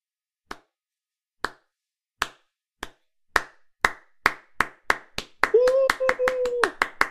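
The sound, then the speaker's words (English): Sharp, isolated claps start slow and steadily speed up into rapid clapping, a slow-clap build, with a brief voice sounding over the fastest part near the end. “Just depending on how you do it, it's the slow clap. The way you kind of did it there, the kind of slow build up to the faster thing.”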